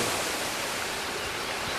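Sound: waterfall rushing water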